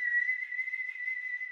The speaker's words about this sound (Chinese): 吹口哨的声音现在就在我们附近